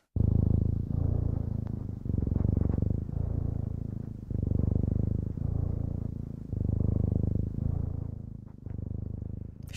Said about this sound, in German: Ist die Katze fertig mit Schnurren